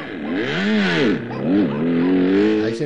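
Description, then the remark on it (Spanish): A motorcycle engine revs, its pitch climbing and dipping a couple of times before settling into a steady, loud drone as it pulls away. “Anda, súbete a la moto y márchate.”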